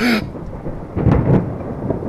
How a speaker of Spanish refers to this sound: ¡Ay, Dios! Ahora una tormenta. ¡Ay, lo que me faltaba! Claro, sí, con este calor que hacía.